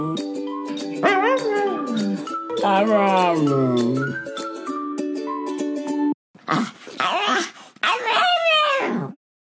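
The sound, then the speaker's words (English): A series of dogs make drawn-out, pitch-sliding howls and whines that mimic the phrase 'I love you', one clip after another, fairly loud, with faint jingling in the background. “so as a little bit of a palate cleanser, here's a bunch of dogs saying, I love you.”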